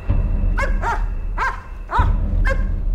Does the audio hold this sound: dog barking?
yes